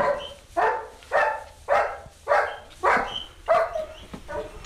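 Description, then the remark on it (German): A chained dog barks agitatedly while four piglets are being fed, in a steady, rapid series of about seven sharp, loud barks, evenly spaced, with no voices present. “Der Hund ist aufgebracht, weil die vier Ferkel vom Hans gefüttert werden.”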